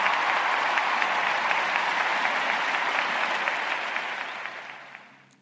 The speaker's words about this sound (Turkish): Hepinize şimdiden teşekkür ediyorum. Hepinize alkış gelsin.